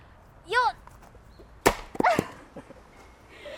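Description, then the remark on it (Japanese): A first-time attempt at splitting firewood with an axe: one sharp, loud crack, followed moments later by a second split or thud. A short vocal exclamation comes just before the swing, and voiced sounds follow the impact. “大丈夫かなやりますね初めての負け割りいきますよっ”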